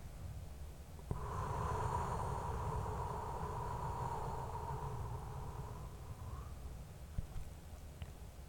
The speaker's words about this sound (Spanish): Una vez más, respira profundo. Y ahora exhala lento por tu boca.